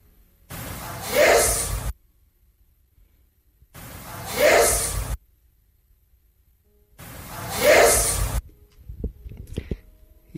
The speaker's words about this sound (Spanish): ¿me la pones otras tres veces la primera psicofonía, por favor?